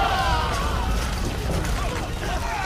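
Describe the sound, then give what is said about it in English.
A heavy stone wall, pushed over by five men, falls with a great crash onto the enemy below: a heavy, sustained crashing rumble fills the whole moment with deep, loud noise while shouting voices rise faintly through it. “five men pushed against the heavy wall, and it fell with a great crash onto the heads of the enemy.”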